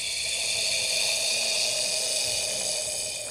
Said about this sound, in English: But before she could even finish her sentence, the most horrifying hiss echoed through our campsite.